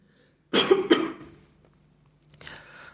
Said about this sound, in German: Ich muss mal mhm. kurz husten.